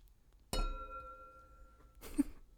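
Wine glasses clink once in a toast, giving a bright, sharp strike followed by a clear, sustained ring that fades slowly, with a brief burst of rustling or breathy noise near the end.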